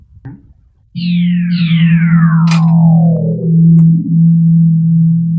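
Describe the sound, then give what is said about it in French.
A free software synthesizer, the Lean Plug Free Alpha, drones loudly on a steady low buzzing note while two bright, overlapping tones sweep downward in pitch, with a brief click and short blips along the way. No one speaks. “Donc là, voilà, ça c'est un synthé gratuit, entièrement gratuit, avec pas mal de sons.”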